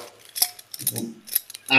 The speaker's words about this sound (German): Ich, ich, ich, kämpfe heute auch mit meinem Korkenzieher, weil zu Hause habe ich ein Kellnermesser und hier habe ich jetzt so ein altes Flügelteil.